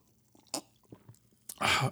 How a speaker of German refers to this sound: Aber ich habe halt vom vielen Singen jetzt einen total trockenen Mund und deswegen muss ich erstmal einen Schluck trinken.